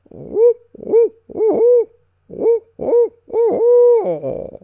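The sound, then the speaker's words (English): A voice imitates an owl on a ridge at dawn while turkey hunting, giving a rhythmic series of loud hoots with rising and falling inflections, in two bursts separated by a short pause. “The owl goes.”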